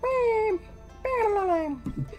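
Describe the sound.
A voice makes two drawn-out, whiny vocal cries, each sliding downward in pitch, followed by a short burst of breathy laughter-like sounds, playfully imitating an octopus's call.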